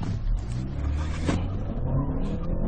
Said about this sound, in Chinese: 起步一脚油下去，已经听到响胎了。说明这个涡轮增压发动机真的很适合这种计算圈速的驾驶啊！